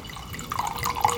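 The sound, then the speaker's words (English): Wine pours into a glass, a steady trickling splash that builds slightly over about a second, with no voices. “So let's pour it out.”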